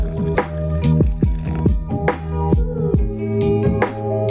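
Water pours in a steady stream, broken by a quick run of bubbly glugs and plops as it fills a container. No one speaks.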